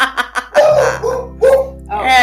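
Dogs at a family home bark in a quick run of short, sharp bursts, some drawn into higher yelps, loud, with no talking over them.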